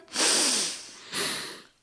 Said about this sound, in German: Und stopp nicht hyperventilieren und jetzt aktiv einatmen